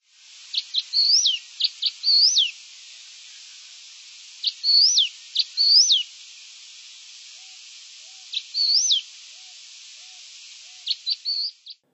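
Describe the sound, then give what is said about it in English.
A masked gnatcatcher calls in three clear bursts of sharp chips and rising wheezy notes, separated by pauses, over a steady background hiss, ending with a few quick chips. “The next bird I'm going to play for you is called the masked gnatcatcher.”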